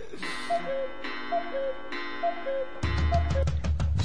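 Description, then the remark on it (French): A cuckoo clock calls its two-note cuckoo four times at an even pace over a steady hum, and a thumping music track with a heavy beat cuts in partway through. “faites-moi le taire car je n'en peux plus de ce coucou.”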